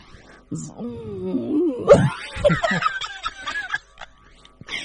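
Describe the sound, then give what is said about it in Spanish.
A person voices a wavering, buzzy hum in imitation of a bee, its pitch sliding up and down for about three seconds before trailing off, with no words spoken. “¿Qué una, hace la abeja? Una abeja. ruido. ¿Y cómo se llama ese ruido?”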